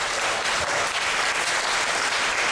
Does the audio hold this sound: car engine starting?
no